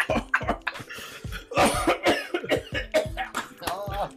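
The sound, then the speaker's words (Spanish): A rapid series of harsh coughs from an elderly man with asthma in a sustained fit, bursts coming one after another with wheezy breaths between them. “Tome, viejito, Oye, el asma. ¿Tiene asma el viejito?”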